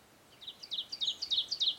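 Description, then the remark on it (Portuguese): A small pet bird chirps repeatedly in quick, high-pitched bursts, clear, in a forest in Ceará, Brazil, with faint quiet background and no one talking. “Em um dia comum, a Índia brinca com seu pássaro no meio da floresta.”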